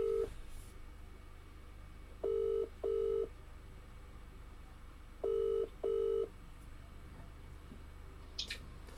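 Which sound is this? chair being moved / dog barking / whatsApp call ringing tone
whatsApp call ringing tone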